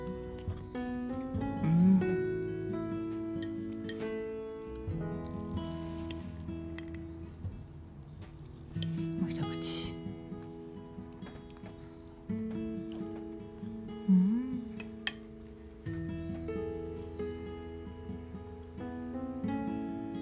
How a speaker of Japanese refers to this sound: 鳥ちゃんかわいいこういう感じ音がしてる